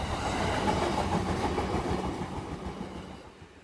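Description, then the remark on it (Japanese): A Yamanote Line commuter train with new cars rushes past, a loud, steady roar of rolling wheels and rattling cars that gradually eases as it moves away; no one speaks. “はい来ましたお早いあ車両が新しいですねこれあ本当ですね”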